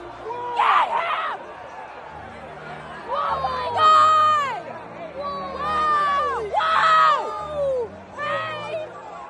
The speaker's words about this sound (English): But I don't know if it was as brutal as this one girl's screech in the one video from uh, the video uh, quality is worse but the reaction is pretty funny. You'll hear it.